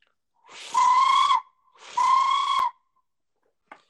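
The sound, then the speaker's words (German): A blown hunting lure call gives its screaming call: two drawn-out, shrill screaming notes, each under a second long and separated by a brief pause, followed by a faint click. No one speaks. “das ist relativ schwer, deswegen habe ich das in meinem Video nicht, aber dieses, dieses Dreifache oder auch dieses Schreien ähm, funktioniert während der Runs wirklich, wirklich gut.”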